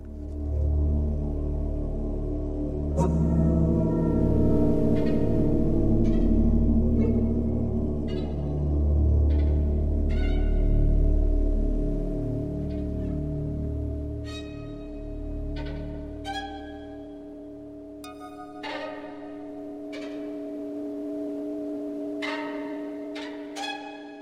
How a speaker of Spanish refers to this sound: pieza criptofónica de 1999 para dos violines y sonidos electroacústicos